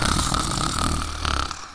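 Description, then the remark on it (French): A loud snoring sound effect: a rumbling snore with a throaty, buzzing rasp, drawn out in one long pull, easing briefly before a second snorting surge. Prominent, with no talking. “Le loup ronflait si fort”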